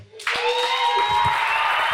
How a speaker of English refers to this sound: Thank you guys. We really appreciate it. Give yourself another round of applause.